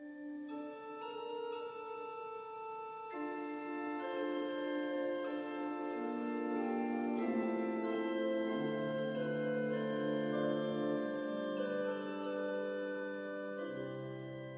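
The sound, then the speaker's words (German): Sustained organ music with rich, steady chords and slowly moving lines, a stately chorale prelude from Heiligenkreuz Abbey, played continuously at moderate volume with no voices. “Ein Choralvorspiel aus dem Stift Heiligenkreuz hier bei Radio Horeb und Radio Maria.”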